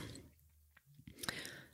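A quiet sip or slurp of coffee, with soft wet mouth sounds and a brief clicky swallow near the end, no talking.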